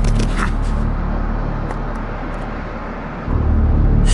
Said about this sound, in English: Joker brakes with both feet, which throws Batman. The hero hits the pavement, rolling and tumbling brutally on the asphalt.